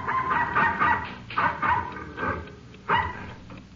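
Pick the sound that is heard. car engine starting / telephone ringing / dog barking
dog barking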